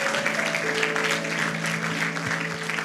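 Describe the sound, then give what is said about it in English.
A crowd applauds steadily after a prayer, a dense wash of many hands clapping at a constant loud level, with a faint low hum sustained underneath throughout. “Can you all just give a round of applause?”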